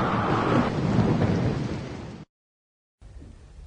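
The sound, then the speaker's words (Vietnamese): A loud thunderstorm with wind sweeping through a garden: heavy rain roars steadily while a deep rumble of thunder rolls through, then cuts to silence before the rain briefly returns more softly. “Một hôm, Dòng bão đi qua khu vườn Giật gãy các nhánh cây Làm bật gốc cả những cây cao to Cả khu vườn bị vùi dập tả tơi trong gió bão”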